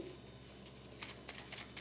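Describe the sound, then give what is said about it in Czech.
Quiet shuffling of tarot cards for a tarot reading: a few soft, papery riffling bursts in an irregular rhythm over a faint steady background hum, with no one speaking. “Teď si beru tarot a změříme si to ještě přes tarotové karty.”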